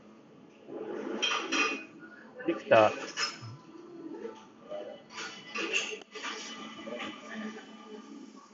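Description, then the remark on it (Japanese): Busy café ambience, played back during a microphone test of a Victor HA-FW1000P, with dishes and cutlery clinking and clattering in irregular bursts, moderately loud, while a person wearing a mask talks over the background chatter. “ただいま、えっ、ー、と、カフェ店内の音を流して、マスクをつけて録音しています。”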